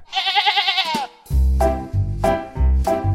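A sheep gives a long, quavering bleat, then three shorter, throaty bleats in quick, even succession, loud, with no one talking.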